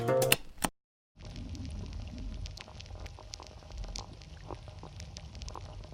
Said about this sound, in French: Vous entendez le glacier de Sarenne, situé dans les Alpes. Ce son a été capturé par Pali Meursault et Thomas Tilly.